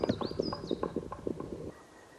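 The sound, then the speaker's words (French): A black woodpecker drums on wood in a fairly slow, uneven series of about a dozen hollow knocks that stops abruptly, with a thin whistled bird call above it early on. “étrange tambourinage du pic noir que j'ai jamais entendu.”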